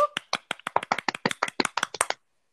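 Brief applause from one pair of hands: about seventeen sharp, crisp claps in a quick, steady rhythm lasting around two seconds, then silence. No voices.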